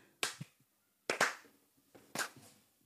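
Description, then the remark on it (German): A lone person claps slowly, three or four sharp, bright claps spaced unevenly about a second apart, thin and sparse with nothing else behind them. “Auch wenn eine Person klatscht, das war eine ganz, eine ganz tragische Akustikkulisse.”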